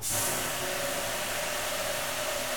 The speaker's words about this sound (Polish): Teraz będę chciał puścić wodę, żeby zobaczyć jak będzie przenosił tło.